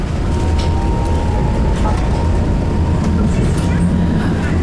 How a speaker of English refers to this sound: But I think uh, like I am having right now a very transitional journey because by the time I was on the tram, it went from daylight to complete darkness. I am making already a circle through the end station